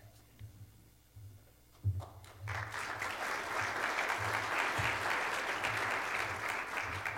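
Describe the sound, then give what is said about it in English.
After a couple of seconds of low murmur, an audience breaks into steady, sustained applause that stays loud and dense to the end, a broad wash of many hands clapping, following an announcement about a donation drive at a church gathering. “You guys don't clap for me after my announcements.”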